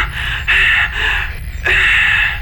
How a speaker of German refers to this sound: Und durch mein heftiges Atmen beschlägt jetzt auch noch mein Visier.